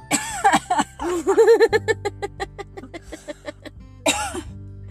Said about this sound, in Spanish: Yo medio ahogándome y tú todavía haciéndome reír.